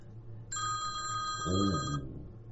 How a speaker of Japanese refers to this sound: おまさかのアラームが鳴るっていうね。